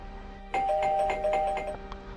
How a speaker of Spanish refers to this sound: Su amiga tocó el timbre